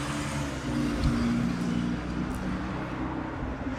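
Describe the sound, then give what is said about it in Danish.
A number 7 city bus stopping over there; its engine hums and idles steadily, a deep rumbling drone over constant street noise, with no talking. “Nu holder 7 af derovre.”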